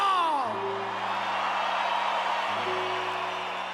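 A large crowd applauds and cheers loudly and steadily, with whoops and yells rising over dense clapping, while a sustained tone sounds underneath.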